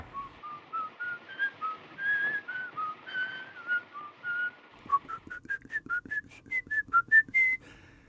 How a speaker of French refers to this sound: très tôt, Fritz Lang, par exemple et qui dans M le maudit euh, utilise une mélodie sifflée par le tueur pour qu'on l'identifie. Et il est donc identifié au son. On ne voit pas Peter Lorre, pas tout de suite. on entend son sifflement.